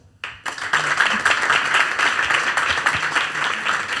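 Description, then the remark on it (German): Audience applause starts abruptly after a brief quiet moment and continues as a dense, steady wash of many hands clapping, fairly loud and sustained throughout. “Erstmal euer Applaus.”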